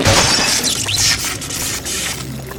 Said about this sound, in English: Jarius smashes the control panel with his metal fist